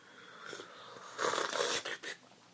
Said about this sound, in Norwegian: Skal vi skåle med kaffekoppene? Å, den var varm. Ja, den er veldig varm. Og så slurpe litt sånn kaffekjerring.